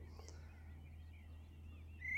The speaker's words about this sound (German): Ich finde das einfach, ja, das ist mega einzigartig. Ich will sofort hören, dass das ein Amsel ist.